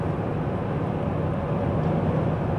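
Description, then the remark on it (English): A steady, loud low rumble of a truck on the road close by, a continuous engine and tire drone with no voices, holding even throughout. “Ah, freaking truck. Let me, bear with me, bear with me. Let me just drive past him.”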